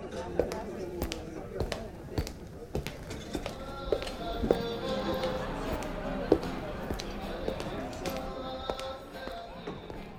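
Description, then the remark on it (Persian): Sharp, clacking high-heeled shoe steps strike the cobblestone floor of a covered bazaar beside a town square at an uneven walking pace, ringing out crisply over a steady murmur of chatter and indistinct voices of people entering the bazaar. “صدای همه مردمی رو میشنوم که وارد بازارچه میشن صدای کفش های پاشن بلند بر سنگ فرش کف بازار”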